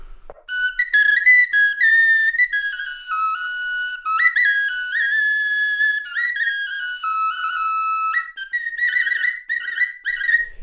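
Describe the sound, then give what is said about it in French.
A bone flute plays a slow, wandering melody of high, sustained notes, some held and some stepping or sliding, fairly loud with no voices. “Ça tient euh, au polissage de l'os ou non, ça tient à l'embouchure, effectivement.”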